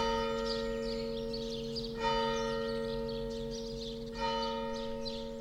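The bell of the Kreuzbergkirche tolls slowly, with two fresh strikes about two seconds apart and a rich, humming resonance that lingers between them. No voices are heard.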